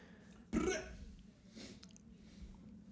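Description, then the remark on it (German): A single loud burp erupts abruptly and rumbles briefly, followed by a softer, fainter throaty sound a moment later against a quiet background. “Das war jetzt ein sogenanntes Rap-Geräusch.”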